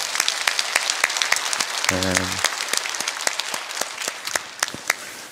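An audience at a church worship service applauds steadily as applause of glory to God, dense overlapping claps filling the whole stretch, with a brief low sustained tone rising out of the clapping partway through before the applause thins toward the end.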